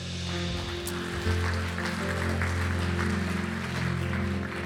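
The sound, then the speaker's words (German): Steady audience applause for the people who raised their hands that day to make a decision for Jesus. It is a dense crackle of many hands clapping without pause, with sustained low musical tones holding underneath throughout. “Der Applaus ist übrigens für die Menschen, die heute ihre Hand gehoben haben, die so mutig waren und diese Entscheidung getroffen haben.”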